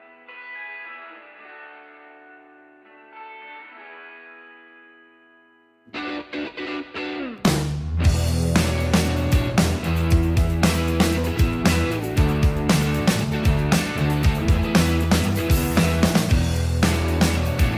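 A song plays: a quiet, sustained keyboard intro with no drums, then a brief swell before a loud full-band section with distorted guitars and steady driving drums kicks in around the eighth second.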